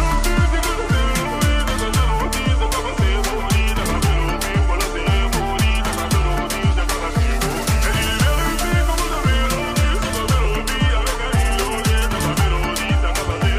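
A French rap song plays steadily and loudly on the radio station Move, driven by a heavy, regularly repeating bass beat with dense layered production filling the whole stretch without pause.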